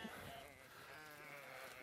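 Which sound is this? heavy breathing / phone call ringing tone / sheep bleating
sheep bleating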